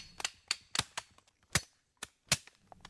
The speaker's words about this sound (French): Là, ils fendent à coups de machette les coques pour en extraire la noix.